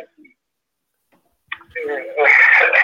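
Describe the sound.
Garbled, tinny audio of a caller on a weak, older phone over a phone line, a distorted, narrowband voice that breaks in after a stretch of near silence and swells louder toward the end.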